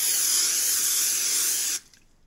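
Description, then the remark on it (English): A long, steady hiss of an aerosol spray paint can as someone tags the side of a building around the corner from 3D Retro. The hiss is bright and airy and runs for almost two seconds before cutting off abruptly into near silence. “Uh, so it sounds like someone's tagging something on the on the side of the building.”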